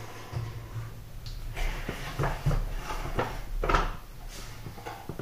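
A cat sneezes in short, sharp bursts of breathy noise amid soft background clatter; the sneezes are brief and moderately loud, and there is no talking.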